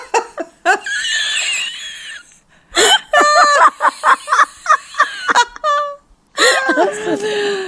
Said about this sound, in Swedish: Åh, oh, herregud. Men fan du rapar ju som en hel kar. Ja men jag dricker ju skumpa, det blir så.